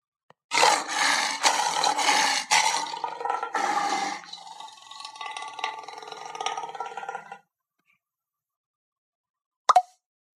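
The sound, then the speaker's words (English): A loud tiger roar in several harsh, rasping surges that trails off into a fading, rumbling growl, followed by silence and one brief sharp pop. “In a hot, steamy jungle, there was a loud roar.”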